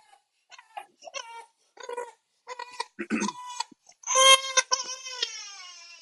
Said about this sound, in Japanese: お前、チェルシーファンなんかってぐらい泣いてるな。